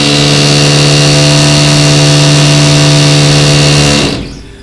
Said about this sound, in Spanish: Este, perdón por el ruido, están reparando aquí al lado de, la estación un local y creo que vamos a tener bastante, bastante.